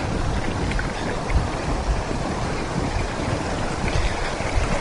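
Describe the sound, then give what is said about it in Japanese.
Steady, full-bodied rush of the Azusa River's clear, pale emerald-green water flowing by the bank where someone is walking. A dense hiss and churn continues with no pauses and no voices. “今あずさ川のほとりをずっと歩いてるんですけどすごい綺麗です水があの薄いエメラルドグリーン色で綺麗ですね”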